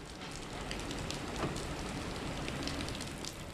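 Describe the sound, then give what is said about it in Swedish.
Heavy rain from a tropical storm pours down in a steady, dense roar, with countless drops pattering and splashing on surfaces, continuous and loud throughout with no voices. “Regnet vräkte ner, ett regn som det inte gick att skydda sig mot.”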